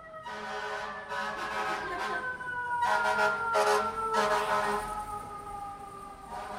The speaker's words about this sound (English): Seems appropriate for Torchtown to have a fire engine loudly proceeding through.